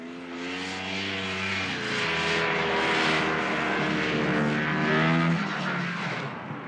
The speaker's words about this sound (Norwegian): Snøscootere durer fra kysten av Grønland og utover havisen.